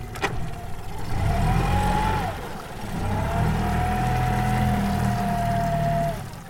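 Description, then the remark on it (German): A small motorboat engine drones steadily as a seaweed harvester in Ireland heads toward the shore to harvest seaweed at high tide, its pitch briefly dipping then rising again, with a low rumble and faint water wash throughout. “Die Algenfirma hat ihm ein Boot zur Verfügung gestellt und ein neues Werkzeug.”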